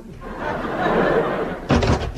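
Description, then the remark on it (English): A door sound effect: a steady, noisy rustling gives way to a sudden loud slam at the end, followed by a brief rattling clatter. “Hear that sound, listeners? A door.”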